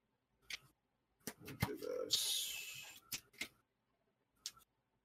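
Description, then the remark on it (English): A deck of playing cards is shuffled with a series of quick papery clicks and a riffling burst, followed by a single card being drawn to resolve an attack in a game; fairly quiet, no talking. “The shuffle, the pull, the anticipation.”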